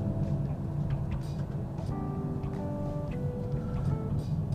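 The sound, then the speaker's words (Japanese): A steady low rumble of a car idling in a company parking lot, with a faint mechanical hum and occasional soft clicks; constant level throughout and no one speaking. “いやほんとすごいよね会社の駐車場の中でもねコンテンツ配信ができる世の中だから”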